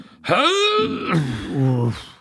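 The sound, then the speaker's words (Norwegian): A person imitates the drawn-out, effortful groan of a father heaving himself up out of a chair: a strained voiced rise that sags into a lower, huffing moan. Fairly loud, no other sounds. “pappa, pappa reiser seg fra stol er jo en egen lyd.”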